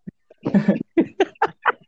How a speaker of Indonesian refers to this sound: oh, batuk ya